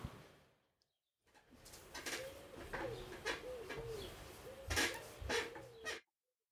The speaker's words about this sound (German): Sag mal, knatscht ähm, was bei dir? Ja, das tut mir leid. Bist du das oder ist das? Äh das ist mein neuer Stuhl, der eigentlich nicht klatscht. Echt, der knatscht so krass?